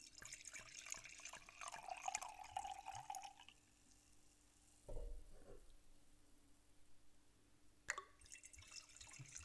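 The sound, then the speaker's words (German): Wine pours in bursts of gurgling glugs for a few seconds, then stops; quieter clinks and a small thud follow. “Das geknubbert.”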